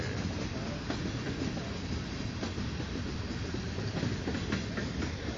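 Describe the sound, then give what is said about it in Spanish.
A steady, dense rumble of a train rolling along railway tracks, with faint rhythmic clatter and a broad hiss, continuous and fairly loud throughout. “En este momento estamos en una transmisión en vivo fíjense, ahí estaba el tren, la gente no creía.”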